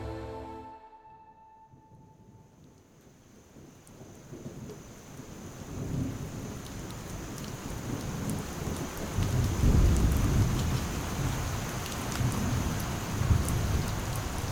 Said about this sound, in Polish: potężnym lesie pora deszczowa była w pełnym rozkwicie. Mimo, że ze wszelkiej roślinności spływały strugi deszczu, najważniejsi mieszkańcy lasu nie musieli niczym się przejmować.